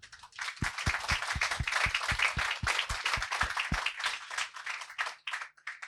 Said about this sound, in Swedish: Tack så mycket. Ge honom en applåd.